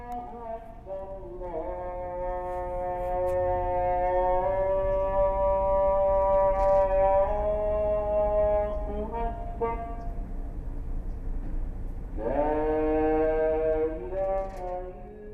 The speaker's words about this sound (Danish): Hver dag, fem gange i døgnet, kaldes der i hele den muslimske verden til bønd fra minareten – med lyden fra denne minaret i Jerusalem byder jeg velkommen til den 11. udsendelse om islamiske imperier og islamisk kunst.